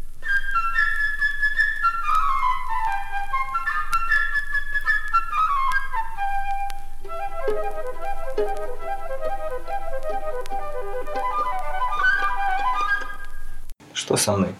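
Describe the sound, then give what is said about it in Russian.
A flute representing the bird in an orchestral fairy tale plays a bright, high, bird-like melody of quick descending runs and fluttering trills, lightly accompanied by the orchestra, continuing steadily before cutting off abruptly. “Каждое действующее лицо этой сказки изображено в оркестре своим инструментом. Птичка – флейтой”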